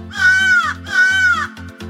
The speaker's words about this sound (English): Have you heard a crow crow? It sounds like this.